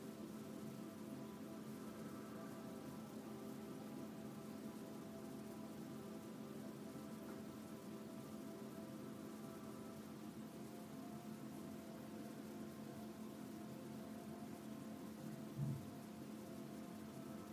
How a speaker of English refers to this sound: And that gentle rhythm of breath just mirrors those waves. As you're hearing those waves in your ear, I want you to feel your feet on the sand.